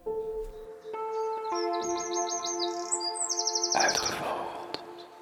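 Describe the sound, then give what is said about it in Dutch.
A Eurasian wren (Troglodytes troglodytes, called winterkoning in Dutch) sings a loud, rapid song of high, sharply repeated notes and fast trills, bursting out in quick phrases over a steady low humming drone. “Toch vond ik het gek dat de wetenschappelijke naam, namelijk Troglodytes troglodytes, wat holbewoner betekent, nogal verschilt van de algemene naam, winterkoning.”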